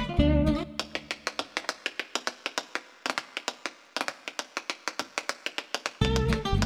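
Tap dancing: a quick run of sharp, crisp shoe taps in a lively, syncopated rhythm with brief pauses, framed by short bursts of music at the start and end.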